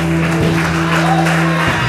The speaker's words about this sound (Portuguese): Você pode aplaudir o Senhor, Senhor.